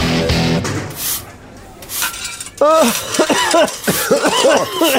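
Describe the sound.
A run of harsh, breathy coughs, several bursts in a row, followed by rougher voiced hacking sounds that could be someone talking or clearing their throat.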